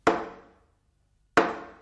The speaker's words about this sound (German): Es klingt ein wenig rätselhaft, wenn die scheuen Mönche mit einem Hammer gegen Bretter schlagen. Sie rufen damit zum Gebet.